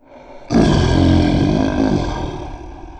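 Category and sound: animal, lion roaring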